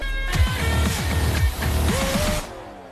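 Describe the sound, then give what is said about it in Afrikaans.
Bells ring with bright, sustained tones over a busy, low rumbling that sounds engine-like, then cut off abruptly after a couple of seconds, signalling the start of the show Wiele Twee Wiele. “Nou kyk, as jy daai klokke hoor, ek wil vir jou sê, dis tyd vir wiele twee wiele en dis 2022.”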